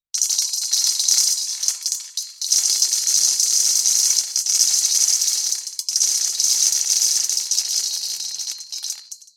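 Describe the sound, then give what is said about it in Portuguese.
Coffee beans pour and rattle continuously into a bowl, a dense, bright clatter of many small hard pieces, with a brief dip partway through before the pouring resumes, then stops. “A gente vai falar bastante, até porque os grãos continuam se multiplicando. E se esticar até a metade do século XIX, essa vasilha vai ficar pequena, viu?”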